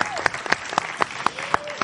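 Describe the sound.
Steady applause with sharp, evenly spaced claps at a quick rhythm, sounding like a small audience clapping together, close and moderately loud, with a faint murmur of voices underneath.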